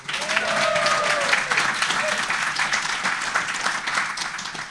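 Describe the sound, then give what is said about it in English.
Sustained applause from an audience fills the whole stretch, a dense wash of many hands clapping at once, steady and fairly loud, with a few brief voices or whistles rising above it early on. “Big hand for Jeffrey Verdon.”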